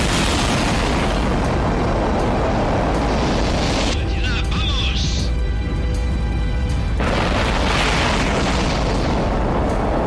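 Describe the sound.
A loud, continuous rumbling roar of rocket engines igniting at the liftoff of Yuri Gagarin's rocket fills the whole stretch, dipping briefly midway where a faint voice or tonal chatter comes through before the thunderous roar returns.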